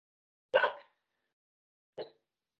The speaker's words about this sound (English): Excuse me, the dogs are talking.